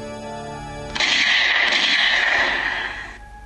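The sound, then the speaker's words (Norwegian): A sudden loud burst of pistol fire with cracking, splintering wood from the top of a row of church pews fills about two seconds, harsh, cutting in over a steady low musical drone. No one speaks. “Det spruta med hognitreverk fra toppen av benkeraden.”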